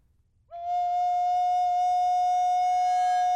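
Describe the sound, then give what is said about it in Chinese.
A recorder sounds a single steady, loud note after a brief quiet start, held for about three seconds as its bright upper overtones gradually strengthen, edging toward the octave without clearly jumping. “刚 它要 快听到 上去了它 上去的那个 一度要上 八度的那 哦 个泛音，对，一度要上去，然后你再那时候再收回来一点，其实就刚刚好。”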